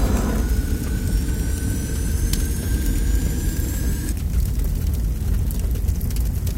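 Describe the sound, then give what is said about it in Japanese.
A steady, loud jet-like roar of thrust blasting from the underside of a modified bottle cap, with a faint high whine, continuous throughout; the whine cuts out partway and the roar carries on unchanged. “この度私は自分に改造を加えキャップの裏からジェット噴射を出すことに成功した。”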